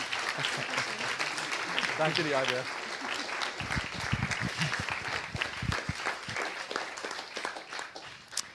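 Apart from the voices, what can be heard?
audience applause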